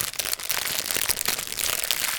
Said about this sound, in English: You can hear the, the, the crackling of the fire.